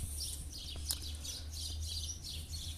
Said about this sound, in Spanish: ¿se escuchan pajaritos?